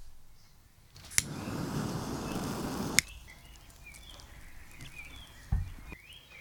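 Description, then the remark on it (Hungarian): A lighter strike clicks as a cigarette is lit, a soft flame hiss lasts about two seconds and ends on a second click, then faint crackling from the lit cigarette's ember and a light thump follow. “közben meggyűjt egy ASMR cigarettát.”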